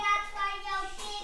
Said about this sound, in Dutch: Dus dat is super fijn om ook te horen af en toe achter ons dat ze aan het spelen zijn.